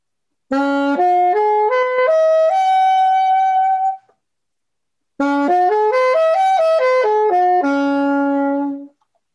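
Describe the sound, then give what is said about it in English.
A dense polychord (D, F sharp, A with C, E, G above) is arpeggiated on piano, notes climbing one by one and ringing together; after a pause, a second pass rises and falls back down, loud with no talking. “If I arpeggiate it, it will sound like this.”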